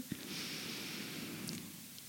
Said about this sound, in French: Alors, je vais plutôt te donner la, pratique la plus simple au monde, qui est très efficace quand tu as une petite crise d'angoisse ou, que sais-je. Tu inspires euh, cinq temps, très longuement, tu inspires.